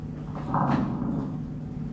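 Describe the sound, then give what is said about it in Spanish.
Lung crackles from a stethoscope recording: fine, wet, mucousy bubbly popping over a steady low hum, with a louder burst in the first half. No voices. “Ahí está crepito.”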